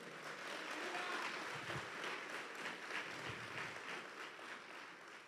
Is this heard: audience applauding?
yes